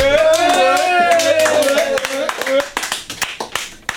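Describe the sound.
Audience applause at the improv show Les Improgrammables, with dense clapping and a sustained cheering voice over it, thinning after a couple of seconds into scattered, individual claps as it dies down.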